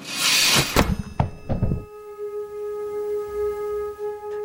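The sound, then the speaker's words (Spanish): A heavy guillotine blade rasps down a runner and slams home with a few sharp thuds, leaving a loud metallic ring that hums and slowly fades. No voices. “El recién fallecido Robert Badanter nunca olvidó cierto sonido, el que hace una cuchilla al partir a un hombre vivo en dos.”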